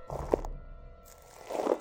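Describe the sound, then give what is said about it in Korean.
Slow, heavy footsteps of a single bear crunch softly outside a tent as it circles around it, one muffled step followed by a pause and then another, fairly quiet, with no talking. “텐트 주변을 따라서 빙글빙글 발소리가 맴돈다.”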